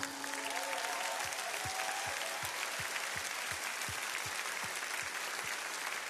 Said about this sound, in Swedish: Ska vi ge Herren en stor applåd?